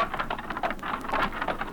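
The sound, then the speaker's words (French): Steady rain falls, a dense continuous patter with scattered sharper drops ticking through it, moderately loud and with no voices. “Après le déjeuner, la petite roulotte reprend sa route vaillamment, dans le soleil ou sous la pluie.”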